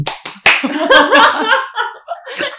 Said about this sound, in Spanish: Ah. la que no sabe aplaudir. Yo empezó mal. Ritmo.